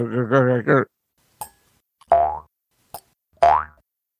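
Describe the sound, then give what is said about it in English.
Springy twangs of a mouth harp played into a microphone: a wobbling buzzy opening, then two short boings whose tone bends upward, separated by sharp little clicks and pauses. “I've, have had springy, one for years. Springy noise. Yeah. This is it. I'm just not playing it well into the mic.”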